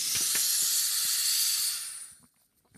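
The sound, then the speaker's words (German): A steady, bright hiss of helium gas spraying from a nozzle, loud and continuous for about two seconds before cutting off, leaving faint scattered clicks. “Also du sprühst jetzt mit Helium in diese.”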